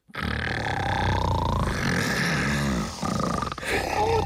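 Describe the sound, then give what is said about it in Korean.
A voice imitates loud, rumbling snoring of two men left alone in a room: harsh, throaty roars rising and swelling, with a brief catch near the end before the growling resumes. “그리고 형부와 정씨는 둘만 남아 있는 방에서 점점 더 코골이의 열기가 뜨거워지고 있었습니다.”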